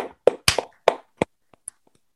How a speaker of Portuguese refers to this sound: Mas enfim, um grande aplauso às meninas, por favor